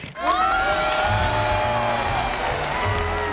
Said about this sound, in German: Na, Jubel halt.